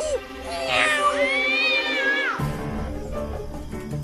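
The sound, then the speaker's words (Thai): An enraged cat lets out a long, loud, angry yowl that rises and bends in pitch for about two seconds as it charges at a mouse in a cave, followed by a rumbling, noisy commotion. No one speaks. “ด้วยความโกรธสุดขีด เจ้าแมวจึงพุ่งเข้าใส่นางหนูที่อยู่ในถ้ำหมายจะขย่ำให้สุดชีวิตโดยหารู้ไม่ว่าหายนะกำลังจะเข้ามาใกล้ตัว”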